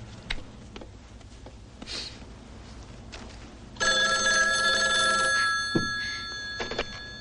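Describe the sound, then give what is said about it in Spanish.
A telephone bell rings loudly and steadily through the second half, preceded by a few quiet clicks and rustles in a still room; no one speaks. “Aurora coge el teléfono y marca.”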